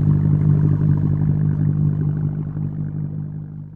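A steady, muffled low-pitched boat engine drone heard underwater while scuba diving a few yards down, with a strong hum and faint rhythmic thrumming, continuing throughout and fading slightly at the end.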